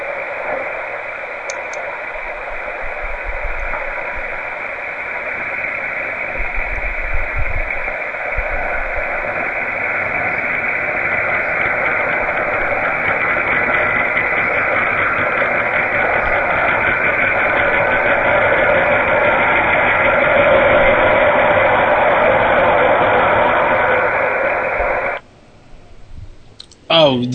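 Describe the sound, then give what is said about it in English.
A recorded train rumbles past in one long, steady, loud roar with faint rhythmic clicking, running unbroken for about twenty-five seconds before cutting off abruptly. “Yeah, yeah pl- that was the train.”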